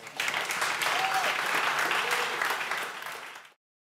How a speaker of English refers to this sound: A round of applause